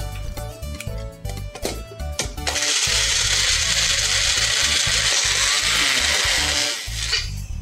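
A mixer grinder whirs loudly and steadily for about four seconds, roughly grinding about 200 grams of ginger, 200 grams of garlic and half a kilogram of green chilies, after a few short clattering knocks at the start.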